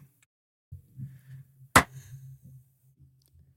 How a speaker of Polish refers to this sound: I od tego klapsa zaczniemy. Daje klapsa ten, kto daje tego klapsa przed każdym spotkaniem i każdą rozmową